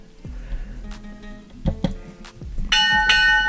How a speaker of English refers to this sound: No, that is the bell, primo. We are over our time limit. That is the end of the Wheel of Chingadera.